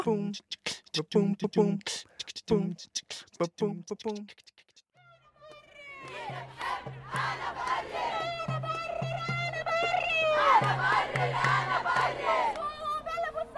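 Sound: protesters chanting slogans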